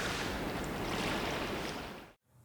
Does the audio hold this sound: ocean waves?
yes